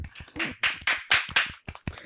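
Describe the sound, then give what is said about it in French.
A short burst of hand clapping, a few people clapping together in quick, uneven rhythm, with sharp bright smacks that overlap and then trail off into a few scattered final claps. “C'est beau, j'ai envie d'applaudir, on applaudit, just clap.”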